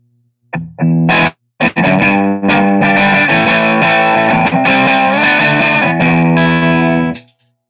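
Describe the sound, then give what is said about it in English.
An overdriven electric guitar through a brownface amp modeler plays a few quick strummed stabs, then rings out a sustained, gritty chord with warm amp-style breakup, a singer's kind of sound, loud, no voices. “The brown face, like more of a … kind of sound than uh, normal AC30 channel.”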